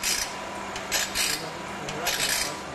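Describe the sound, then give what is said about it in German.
A saw sharpening machine, lowered until it just touches, grinds lightly against saw teeth, giving short, repeated hissing rasps in an irregular rhythm at moderate volume, with no one speaking. “Runterstellen, bis wir ein leichtes Schleifgeräusch im Zahnrund hören.”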